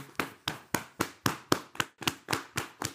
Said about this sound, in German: Und um das noch zu verstärken, klatsche jetzt auf deine Oberschenkel